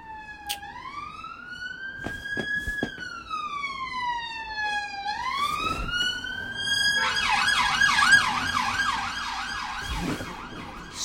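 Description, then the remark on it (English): Emergency sirens wail past, starting with a slow rising-and-falling wail that shifts into a fast yelping warble, loud, with traffic noise underneath and no talking. “Sorry about the sirens.”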